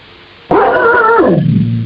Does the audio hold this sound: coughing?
no